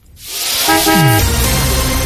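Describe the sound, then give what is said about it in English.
A motorbike sound effect, played during a Seven FM traffic bulletin: a single short horn toot over a loud roar of engine noise, with a falling pitch as the vehicle sweeps past. “wasn't that a fly of an aeroplane? No, nope, motorbike. Re- I'd re-look at your sound effects.”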